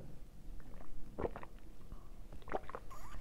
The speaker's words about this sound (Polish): Tego się napiję dużego łyka wody.